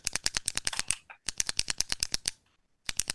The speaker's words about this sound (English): You're banging on the controller with a pen.